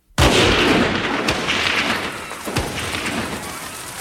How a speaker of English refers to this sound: As the procession moved through Dealey Plaza, gunshots tore through the midday air.